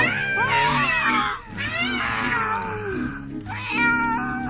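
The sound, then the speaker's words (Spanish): A cat yowls loudly in long, wavering cries, with two or three drawn-out wails running almost continuously and briefly dipping between them. No one speaks. “el rollizo cuerpo medio devorado del capitán Norris por mi propio gato saltándome al cuello”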